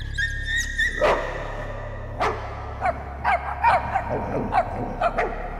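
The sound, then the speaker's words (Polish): Several dogs bark and yip in quick, uneven bursts as they rush inside through an opened door, with a low steady hum underneath and no talking. “Otworzyłem drzwi i psy wpadły do środka.”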